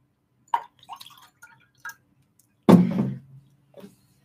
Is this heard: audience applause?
no